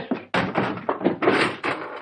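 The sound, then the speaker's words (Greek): A door shuts with a sudden, solid thud, then a couple of seconds of scraping, shuffling handling noise. No one speaks. “Κλείσε την πόρτα και τράβηξε τι κουρτίνε για να μα βλέπει κανεί.”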